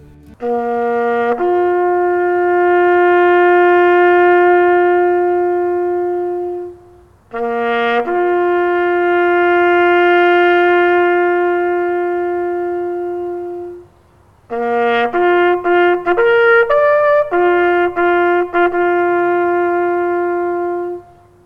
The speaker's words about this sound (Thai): ในเวลารุ่งเช้าของวันแอนแซกวันนี้เสียงแตรที่คุ้นเคยดังขึ้น เป็นสัญญาณให้ชาวออสเตรเลีย และชาวนิวซีแลนด์ทั่วประเทศและทั่วโลก มารวมตัวกันเพื่อรำลึกถึงผู้เสียชีวิตจากการสู้รบ